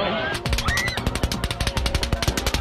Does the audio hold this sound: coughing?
no